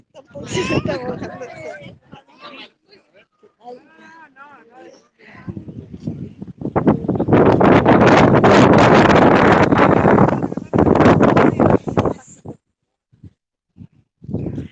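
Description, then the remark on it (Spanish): Voices speak briefly, then strong wind on a windy, drizzly day, with flags being struggled with, buffets the microphone in a loud, rumbling roar that lasts about six seconds, with a few gusty surges before it abruptly drops away. “Mucho viento tenemos el día de hoy.”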